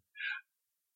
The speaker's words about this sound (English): Is the dog still yipping? Yeah, the dog's yipping the whole time. Okay.